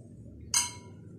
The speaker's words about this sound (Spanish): Sí, primero vamos a brindar por este programa. Salud. Claro que sí.